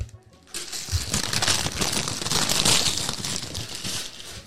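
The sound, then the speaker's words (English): Real wrapping paper crinkles and tears continuously after a brief pause, a bright rustling as a gift box is unwrapped, with faint voices in the background. “Oh it's yeah, real wrapping paper.”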